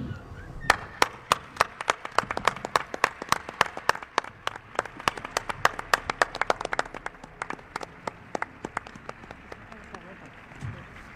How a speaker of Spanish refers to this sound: pues quizá el último aplauso de la noche.